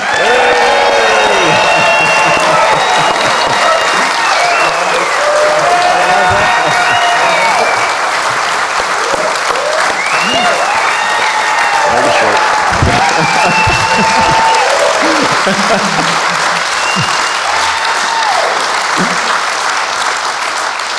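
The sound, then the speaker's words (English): A live audience applauds and cheers loudly and continuously for about twenty seconds, welcoming Brisbane Lions coach Chris Fagan, a dense wash of clapping with whoops and shouted voices rising over it, full. “It's a bit, it's a bit loud and noisy like the Gabba, isn't it?”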